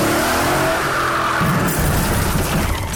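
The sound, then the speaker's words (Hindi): Car tires screech loudly in a sustained skid for over a second, then a heavy crash and rumbling clatter follow and continue to the end, as a car whose driver forgot to brake during the 1950-51 shooting of the film Fareb runs into the director's foot. “बाबा drive कर रहे थे और जहाँ पर सीन कट होना था बाबा वहाँ पर ब्रेक मारना भूल गए अचानक एक आवाज है आ धड़ा”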